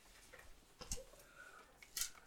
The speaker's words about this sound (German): Wir dürfen heute viel Bibel blättern.